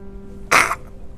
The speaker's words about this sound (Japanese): すいませんくしゃみでした